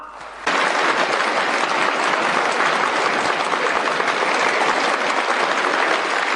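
Warm applause at the close of the Fourth Plenary Session of the 16th Party Central Committee, welcoming Jiang Zemin to give a speech, bursts in after a brief quiet moment and carries on as a dense, steady roar of many hands clapping, holding the same loud level to the end with no voices.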